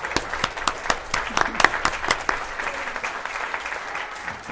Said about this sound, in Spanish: Pero les voy a decir, porque tiene un currículum muy grande, muy largo, muy amplio, por eso la hemos invitado para que platique con nosotros, pero vamos primero que nada a darle la bienvenida con un caluroso aplauso.